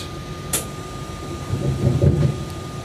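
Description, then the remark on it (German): Train cars being uncoupled by the driver using a key switch on the control desk: a sharp metallic clunk with a brief hiss, followed by a low, rumbling shudder over a steady electrical hum, with no one speaking. “Also zuerst einmal müssen sie entkuppelt werden. Das mache ich jetzt.”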